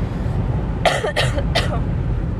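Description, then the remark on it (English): Three quick, raspy coughs in close succession, harsh and breathy, from a person with a cough and head cold lasting weeks, over a low rumbling background hum. “I have like this cough and this head cold that I've had for weeks.”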